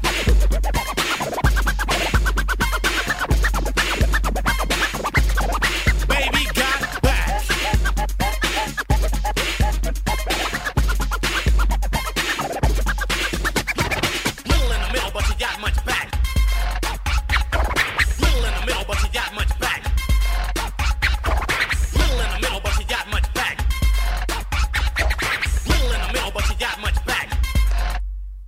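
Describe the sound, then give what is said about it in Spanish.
A 1992 hip-hop hit song plays loud and continuous, with a heavy, booming bass line, punchy drums and record-scratch effects over a steady beat throughout. “El super hit que acabamos de escuchar es del año de 1992”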